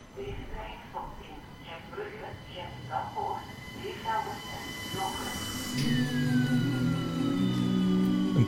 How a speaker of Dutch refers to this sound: 20 voor 11 s'avonds. Gent Sint-Pieters. Over twee minuten vertrekt de S53. De laatste trein van Gent Sint-Pieters naar Beervelde.